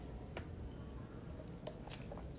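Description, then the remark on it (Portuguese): A speaker pauses to sip and swallow water, producing a few soft, brief wet clicks and gulps spaced out over a couple of seconds against a quiet background. “uma pausa aqui para água”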